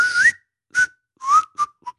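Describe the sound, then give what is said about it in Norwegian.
A person whistles a song's closing melody instead of singing it: five separate notes with gliding pitch and brief pauses between them, the last note quieter and clipped. “Men så er det jo ikke så, det er det plystring ja. istedenfor sang.”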